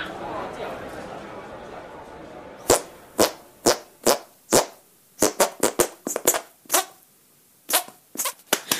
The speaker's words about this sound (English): Yeah, that was amazing. Oh my god! Can you play anything? else with armpit farts? No, no, just the French national anthem.